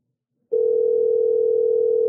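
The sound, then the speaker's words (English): After a brief silence, a phone line's steady electronic ringing tone starts abruptly and holds unbroken and loud, with no voices, as an outgoing call to a man rings without being answered. “I don't think he's going to answer.”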